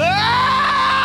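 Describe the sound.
A loud pained scream, as when stepping on a Lego for the first time: a single sustained "ah" that rises sharply in pitch at the start and holds for about a second before cutting off.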